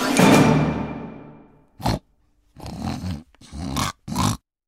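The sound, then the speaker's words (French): A loud, harsh blast fades away, then a large, shaggy, drooling pig grunts and snorts in four rough bursts separated by short pauses. No one speaks. “Et disant ces mots, elle siffla de toutes ses forces et un gros cochon hirsute et plein de bave apparut.”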